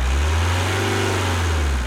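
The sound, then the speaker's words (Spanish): A car engine rumbles and is revved up briefly, its deep pitch rising and falling back in one smooth surge, with no voices present. “Cuando te asocias a Sintepa, te asocias también a este sonido. A ver, aceleralo un poquito.”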